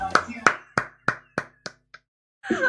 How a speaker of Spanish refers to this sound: aplausitos para esa.